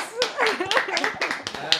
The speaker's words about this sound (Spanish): Tenemos que aplaudir, tenemos que aplaudir, vamos.